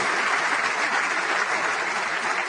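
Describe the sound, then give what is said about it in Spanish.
Steady, dense applause from a crowd at a business convention, welcoming those attending, many hands clapping at once in a continuous wash of sound with no talking over it. “Así que darte un fuerte aplauso por estar aquí.”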